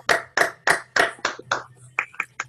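A few hands clap in a quick, even rhythm, about nine sharp claps over a couple of seconds, with a low steady hum underneath and no talking.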